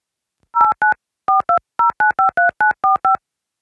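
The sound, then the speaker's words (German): A quick series of about a dozen telephone keypad dialing tones, short clear beeps in an uneven rhythm of pairs and runs, fairly loud with no voices, as someone dials to place a phone call. “Warte mal, ich rufe mal eben an.”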